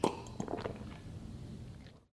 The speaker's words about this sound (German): Prost, ich nehme jetzt einen Schluck. Ähm, Pfefferminztee.